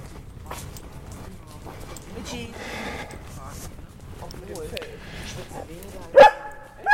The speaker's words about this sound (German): Wie wäre es, wenn Sie den mal in den Griff nehmen? Warum? Weil er rumbellt. Aber lassen Sie ihn doch bellen.